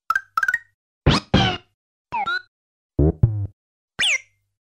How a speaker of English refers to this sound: Yoshi's voice has also changed over the series. From these original SNES and early N64 sounds,